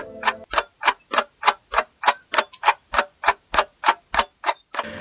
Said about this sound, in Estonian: keeldus mängimast ja malekell tiksus Fischerile saalitäie publiku ees täis